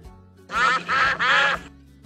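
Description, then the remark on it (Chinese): Three loud, raspy duck quacks in quick succession from Mrs. Duck and her ducklings at a road crossing with traffic lights. Each is a short harmonic-rich burst, with a brief pause between them and a quiet low background hum underneath. “他在红绿灯的路口遇到了鸭太太和他的孩子们。”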